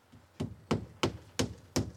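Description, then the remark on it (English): A carpenter strikes five sharp hammer blows, driving nails into wood at a steady, even pace, each a crisp knock with a short ringing tail, with no voices present. “And he turned and resumed his work, hammering some nails into place.”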